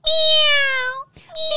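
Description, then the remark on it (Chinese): As a vocal exercise, a person imitates a newborn kitten's meow: one long, high, thin mew that slides slightly downward for about a second, then a brief pause before a second mew begins. “那听众朋友可以试试看呐，因为学那个小猫叫 怎么叫？ 小猫刚出生的时候是喵”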